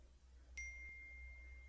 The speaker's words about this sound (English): His phone chirped again.